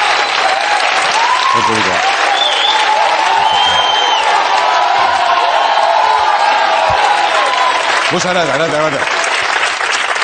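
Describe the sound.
A crowd applauds loudly and steadily for the whole stretch at the opening of the show Leitmotiv de Andreu Buenafuente, with scattered cheers and whoops rising above the clapping and a few voices shouting through it.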